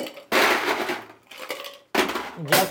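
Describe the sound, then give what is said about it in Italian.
Ice rattles hard inside a cocktail shaker as a cocktail is shaken during its preparation, with ice supplied by Quality Events: loud, noisy bursts in a long vigorous stretch of shaking, a short pause, then two more rounds of crunchy clattering. “metodo di preparazione lo shakeriamo.”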